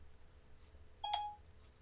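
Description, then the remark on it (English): A short electronic chime sounds once as the Siri voice assistant activates, a clean bright tone lasting about a quarter second over a faint low hum, with no voices present. “oh oh oh here we go hey siri what do you call a large group of worms”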